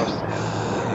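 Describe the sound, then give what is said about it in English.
A time machine engine whooshes loudly and steadily, a dense grinding roar that fills the whole moment without a break, continuous. “That's the sound of her engine this time.”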